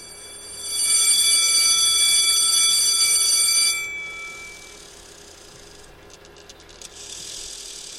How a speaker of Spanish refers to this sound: Bien, ese, ese timbre nos indica que, que tenemos que hablar un poquito de un signo, ¿no? Que hemos llegado a la pseudo clase.